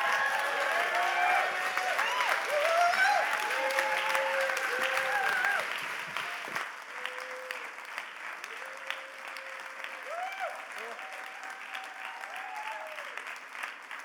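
A large crowd stands and applauds to welcome a speaker onto the stage, dense clapping that is loud at first and then thins and softens after a few seconds, with scattered voices and cheers mixed in.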